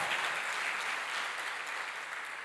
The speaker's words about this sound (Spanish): Eso se merece un fuerte aplauso al Señor. Fuerte ese aplauso.